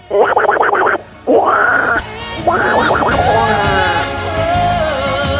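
Raspy, nasal quacking sounds in three loud bursts, a voice imitating Donald Duck, with a fast stuttering run first, then longer squawks trailing into a steady background tone.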